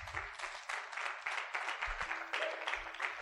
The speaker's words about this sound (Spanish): Porque vamos un fuerte aplauso